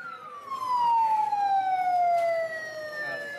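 A loud emergency siren wails steadily in a street, its pitch sliding slowly downward as the vehicle passes, with traffic rumble underneath.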